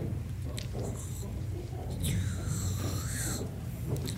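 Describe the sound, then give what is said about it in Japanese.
A voice imitates slurping udon noodles in the rakugo story "Toki Udon": a couple of short sucking bursts, then a long, airy, whistling inhale that rises and falls before stopping. No one speaks. “これ食べる時の音ねこれはちょっと練習してほしいこのねえー、うんうんうんえー、音を鳴らすように舌を上顎につけて両側から息を吸うねえー、まあ、ほっぺた震わす感覚で”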